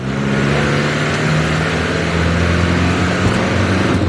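A car engine drones steadily as the vehicle drives, a low humming tone with a faint rise, continuous and fairly loud throughout with no voices.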